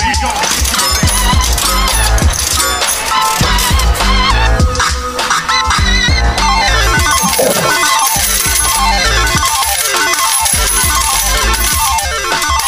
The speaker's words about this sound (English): And everybody in the world knows what that sound is. That is none other than the cash register going ballistic as uh, Patrick Mahomes has signed his deal.